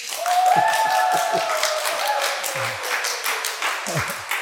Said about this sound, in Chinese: 请大家鼓掌欢迎。